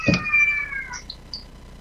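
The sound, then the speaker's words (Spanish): A single drawn-out, fairly loud cat meow with a sharp onset and a sustained high, wavering tone that fades after about a second, followed by a couple of faint short chirps. “El gato también que estamos aullando.”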